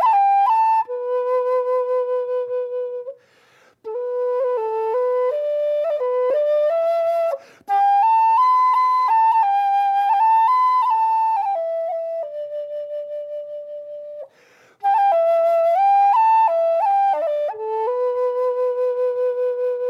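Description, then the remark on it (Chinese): A solo xiao bamboo flute plays a slow, breathy melody, a theme from the piece Chunjiang (Spring River), with sustained notes, gentle pitch bends and short pauses between phrases, including one long held tone near the middle. “F 调就是琴箫。就是细一些的，然后声音也小一些的。”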